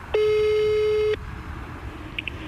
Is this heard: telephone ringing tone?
yes